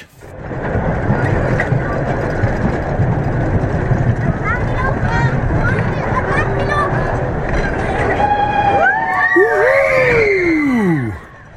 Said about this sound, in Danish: råber alle i rutsjebanen, da de i høj fart kører ned ad den ene bakke efter den anden. Det kilder helt vildt i maven hver gang, de kører over toppen af en bakke.